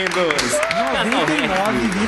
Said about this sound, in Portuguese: Uma salva de palmas para esses lindos.